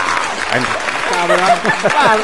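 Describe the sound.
Steady, dense applause from a crowd fills the whole stretch, a loud crackling wash of clapping with a voice speaking over it.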